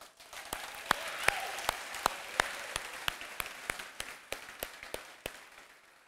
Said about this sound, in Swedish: Amen. Fantastisk eh, lovsång idag. Tycker inte vi kan ge den, eh, lovsångsteamet en stor applåd.